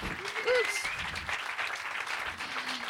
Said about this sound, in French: Merci à tous. Merci, on peut encore applaudir les artistes. Merci, merci, merci.